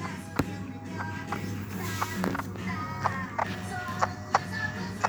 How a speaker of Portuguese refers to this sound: Ok, agora bater do coração.